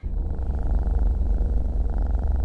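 A sleeping kitten purring, a steady low rumbling purr with a soft pulsing rhythm that continues unbroken throughout, with no voices.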